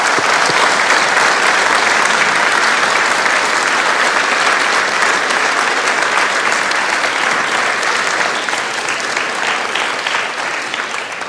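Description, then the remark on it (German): A big audience bursts into sustained applause for everyone involved in a short play performed before a sermon, a dense, loud wash of clapping that holds steady for about eleven seconds and eases slightly at the end, with no talking over it. “Und deswegen ähm, ja, würde ich nochmal vorschlagen, dass wir allen Beteiligten nochmal einen riesigen Applaus geben für das, was ihr getan habt.”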